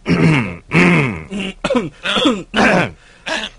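Loud throat clearing and coughing from a Love Live fan caller just connected to a live call: about seven rough, voiced bursts in quick succession over a few seconds, with no speech.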